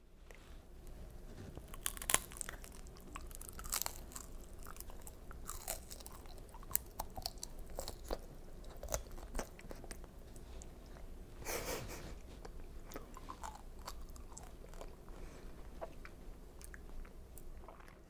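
Chewing of homemade bekko-ame (amber sugar candy) made in a silicone mold, with sticky, wet mouth sounds and occasional small crackly crunches continuing steadily for several seconds, with no one talking.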